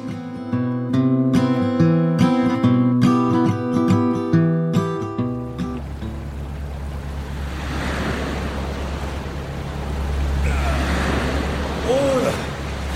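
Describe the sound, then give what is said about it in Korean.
A few seconds of music give way to a loud, steady roar of rough sea waves, surging and washing around a fishing boat out to catch webfoot octopus, with a heavy low rumble and gusty wind. “파도가 장난이 아닌데요.”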